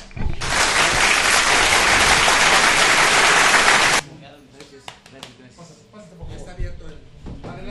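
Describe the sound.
A burst of dense, steady applause lasting a few seconds cuts off abruptly, followed by quieter scattered sounds and faint talk.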